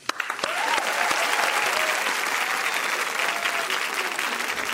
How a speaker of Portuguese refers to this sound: Aplausos.